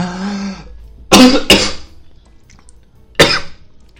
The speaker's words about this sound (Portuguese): Eita, gente, deu uma tosse aqui agora.